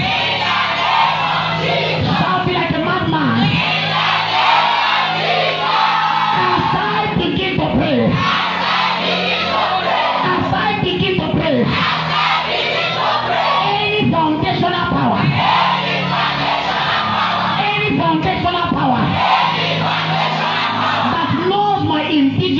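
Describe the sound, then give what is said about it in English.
A large crowd shouts "in the name of Jesus" loudly in unison, repeating after a preacher, voices blending into a dense, sustained roar with rhythmic surges, broken by a few brief lulls between repetitions. “Somebody repeat after me as loud as you can. Say in the name of Jesus. You can be louder.”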